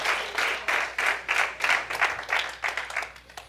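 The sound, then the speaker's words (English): An audience at a morning service gives the Lord a hand clap together, a dense, steady wash of clapping that swells in rhythmic waves and carries on throughout, with a faint voice murmuring beneath. “All ah, right, give the Lord a hand clap this morning.”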